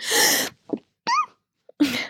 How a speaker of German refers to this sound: Warte, jetzt muss ich erstmal niesen.